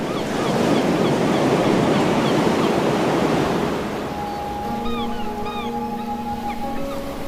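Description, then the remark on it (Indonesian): Loud surf of the Indian Ocean washes and crashes on the shore for several seconds, then eases off as steady horn-like tones and a few high chirping calls rise over the softer sea. “Jikalau aku berdiri di pantai ngeliat aku mendengar lautan Hindia bergelora.”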